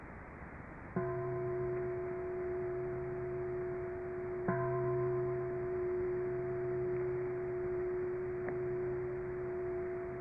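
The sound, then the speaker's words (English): A meditation bell is struck three times a few seconds apart, each strike blooming into a steady, humming tone that rings on and slowly fades. No voices. “We have right here the bell. You know? This is simplicity of hearing the bell.”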